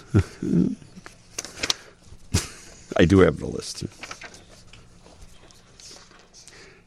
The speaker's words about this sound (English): Is there anything better, really, than listening to me rattle paper on the show?